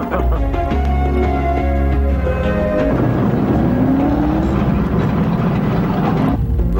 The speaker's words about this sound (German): hat einen neuen Fahrer und der muss erst mal ein paar Runden drehen.